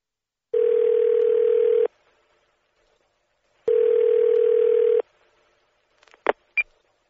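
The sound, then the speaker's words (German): A telephone ringing tone sounds twice over the line as a call is placed to a cinema information line, each long buzzy burst followed by a pause, then a few sharp clicks as the call connects. No voices. “Sie möchten ins Kino gehen und rufen die Kinoauskunft an.”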